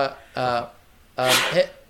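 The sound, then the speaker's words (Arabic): A sneeze in two parts: a short voiced intake, then after a brief pause, a louder, breathy burst with a hissy edge that trails off. “يرحمك الله يرحمك الله”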